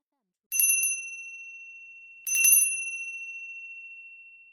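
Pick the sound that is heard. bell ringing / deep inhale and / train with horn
bell ringing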